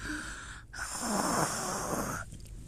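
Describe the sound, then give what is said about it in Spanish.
A person imitates snoring with one long, rasping, throaty snore sound held for a couple of seconds, fairly loud, with no talking. “ronca para que estén dormidos, porque roncan cuando duermen.”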